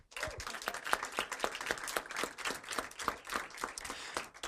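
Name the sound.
audience applause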